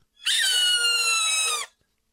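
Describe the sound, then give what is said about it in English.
A hawk attacking a chipmunk: one loud, shrill, strained squeal lasting about a second and a half, holding steady then sagging slightly in pitch before cutting off, with no voices. “pretty sure that was a hawk uh, uh attacking a uh, chipmunk.”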